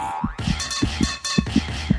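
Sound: irregular heartbeat sound effect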